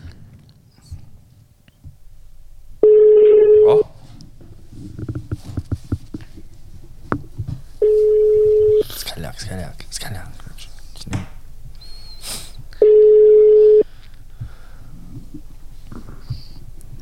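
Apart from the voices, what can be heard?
phone call ringing tone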